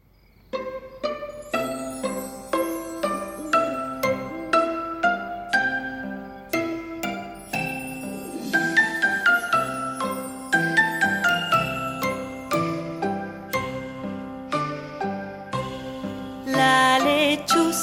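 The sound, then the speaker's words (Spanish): A gentle, chiming lullaby melody, a children's song about an owl for relaxing and sleeping, plays alone, soft bell-like notes stepping along at a calm, steady pace, with fuller chords swelling slightly toward the end and no voices. “Antes de despedirnos, les vamos a enseñar una linda canción para relajarnos y dormir bien.”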